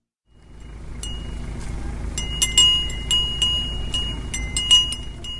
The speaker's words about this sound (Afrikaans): Hier naby 'n veld met bokke met klingende klokkies om hulle nekke